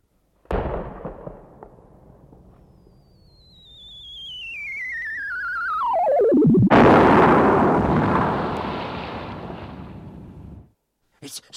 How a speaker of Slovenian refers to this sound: So kaj zadeli? Čudno, čudno, čudno tudi oni niso nič zadeli. Granata je padla v našo mlako na levi strani gozda.